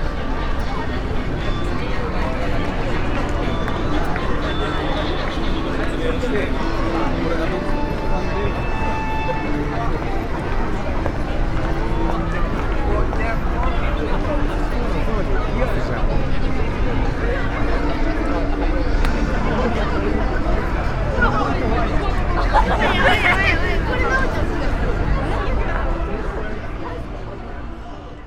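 Dense crowd ambience on Shibuya Center Gai, a busy shopping street: overlapping chatter and footsteps form a steady, loud wash throughout, with faint tonal snippets of music drifting through the hubbub.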